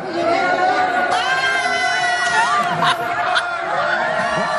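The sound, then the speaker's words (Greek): An audience competing to shout the loudest to win a pillow: many voices shout and scream all at once, a dense, sustained roar of high-pitched voices with occasional squeals rising above it, holding steady for several seconds. “Αυτή θα την πάρει, αυτή που θα φωνάξει πιο πολύ.”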